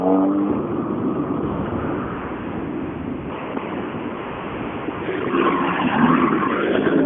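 A rally car, start number 42, revs its engine briefly at the start, then gives way to a steady, rushing roar as it pulls away, swelling slightly louder toward the end, with no one talking.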